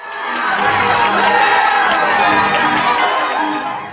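A crowd cheers and applauds, a dense, loud wash of many voices whooping over clapping that holds steady for about four seconds before easing off at the end.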